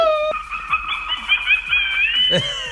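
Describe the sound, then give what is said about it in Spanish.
A Halloween-themed doorbell ringtone: a brief tone, then a long, wavering, howl-like electronic sound whose pitch bends and slides, ending in a sharp rising sweep. No one speaks. “pues ahora que viene Halloween, las compañías que hacen los timbres han desarrollado tonos para los timbres con motivo de Halloween.”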